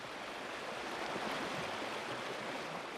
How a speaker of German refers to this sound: Wassermassen drängen sich durch die Landschaft. Mal als in der Sonne glitzerndes Band, mal als graugrüner, tosender Strom. Immer weiter dem Meer entgegen.